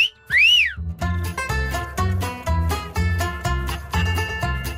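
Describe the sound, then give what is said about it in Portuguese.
A single quick whistle swoops up and back down near the start, then a bouncy rhythmic musical backing with a steady beat takes over for the rest. “Sou o som de um assobio que sussurra, sopra mais.”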